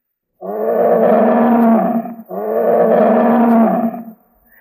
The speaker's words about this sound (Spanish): Un día bajaba el joven Sansón a las viñas de Tamnata, cuando de pronto le salió al encuentro un feroz y rugiente león.